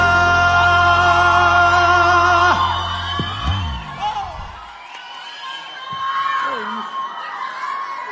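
A loud crowd cheers, whoops and yells over the fading end of a sustained musical chord, the shouting continuing steadily for several seconds before easing slightly.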